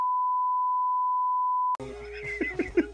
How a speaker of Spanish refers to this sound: Pon pito ahí, pon un pito ahí, por favor.